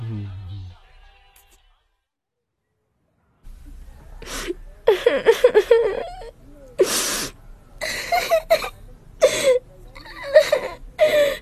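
A girl sobs and wails close by in uneven bursts, with sharp gasping breaths between tearful cries, after a short stretch of near silence.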